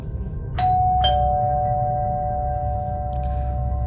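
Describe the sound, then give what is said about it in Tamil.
A house doorbell sounds two quick chimes about half a second apart, each tone ringing on and sustaining clearly over a low background rumble, followed by a faint brief clatter. “இவங்களும் வீடை லாக் பண்ணிவிட்டு வீட்டுக்குள்ளேயே விளையாண்டுட்டு இருக்கும்போது டோர் பெல் அடிக்கிற சத்தம் கேட்குது”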